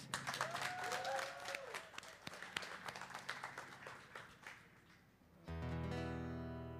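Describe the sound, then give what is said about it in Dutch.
A live crowd applauds and cheers loudly, with a few whistles over dense clapping. The ovation thins out after about five seconds, and then music starts playing. “laat je nog één keer heel hard horen voor …”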